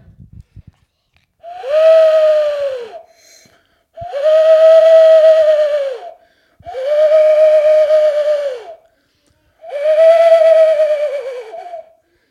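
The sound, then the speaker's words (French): Four long, purring turtle dove calls repeat at an even, unhurried pace, each one a sustained low cooing note that tails off slightly at the end, heard clearly with short silences between. “Alors le premier c'était quoi Le merle noir et le deuxième c'était la tourterelle.”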